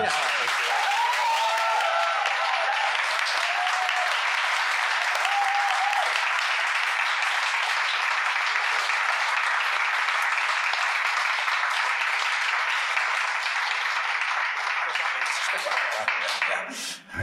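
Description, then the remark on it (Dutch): Sustained audience applause, a dense steady wash of many hands clapping for about seventeen seconds, staying loud throughout before tapering at the very end, with a few faint voices mixed in, at the close of an event where a Zilveren Griffel award was presented. “Dankjewel voor het mooie applaus.”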